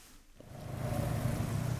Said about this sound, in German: Stop and Go in Davos. Dicke schwarze Autos stehen im Stau. Drinnen sitzen Manager und andere wichtige Leute vom Weltwirtschaftsforum.